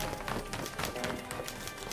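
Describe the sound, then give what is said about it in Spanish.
Quick, steady footsteps of a boy running off to fetch someone, each step a short thud in a brisk rhythm that carries on for a couple of seconds at a moderate level. “El chico se dio cuenta que había escuchado bien y salió corriendo a buscar al tal Felipe.”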